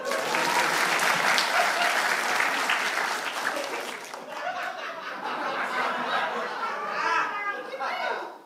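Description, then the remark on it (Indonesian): A crowd applauds loudly for about four seconds, the clapping then thinning into scattered claps mixed with laughter and chatter from the audience. “Yang baru tahu boleh tepuk tangan.”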